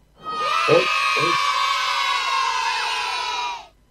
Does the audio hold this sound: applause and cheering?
yes